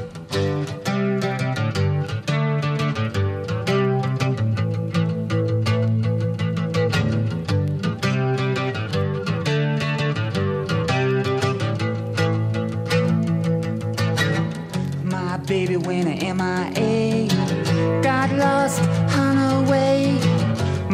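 A rock song plays loud and steady throughout, with a full band sound of driving guitars, bass and drums, growing brighter and busier toward the end.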